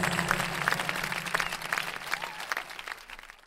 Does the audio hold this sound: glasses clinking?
no